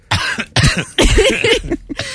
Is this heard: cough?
yes